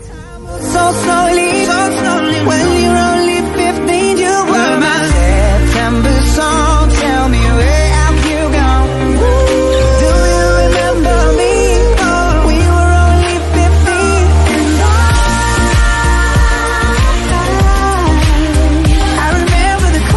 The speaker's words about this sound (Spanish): es una canción que precisamente se lanzó en el mes de septiembre del año 2017 y es eh, una canción que le dio la vuelta a todo el planeta en ese momento, sonó en todas las radios, tiene más de 200 clics, 200 millones de clics en Spotify y así suena.